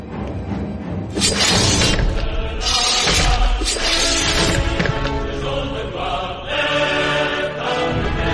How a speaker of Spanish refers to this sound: Ese sonido de, de la chapa cayendo nos acaba de, poner la, piel de gallina de verdad.